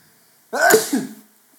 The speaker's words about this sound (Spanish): Así estornudo yo, gracias. Para que quede registrado, para que sepan cómo estornudo.